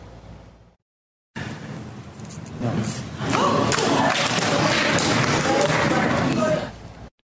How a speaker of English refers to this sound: Senator John McCain, just days removed from his cancer diagnosis, stunning the chamber, turning the thumbs down on the repeal bill. It happened just feet away from Republican leader Mitch McConnell, prompting an audible gasp in the chamber.